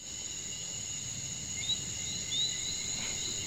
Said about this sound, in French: Je vous propose donc de vous mettre dans l'ambiance. On est dans une forêt.